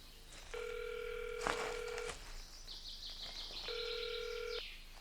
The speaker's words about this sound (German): Einer nahm seine Sonnenbrille ab, zückte sein Handy, vergewisserte sich, dass niemand ihn sehen konnte und wählte eine Nummer.